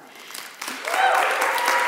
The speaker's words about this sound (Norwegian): Skal vi gi en applaus til de som sitter og kjører skjerm?